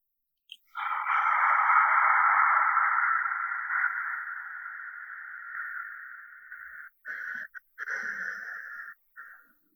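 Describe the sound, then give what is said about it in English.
A steady ujjayi, or ocean, breath done through the mouth: one long, raspy, ocean-like exhale lasting several seconds, followed by a few shorter choppy breaths, with no talking. “Okay, so I want to pause there for a moment and say the way you breathe, if you are a yoga experienced yoga practitioner, I would recommend you use what's called either ujjayi breathing or ocean breathing.”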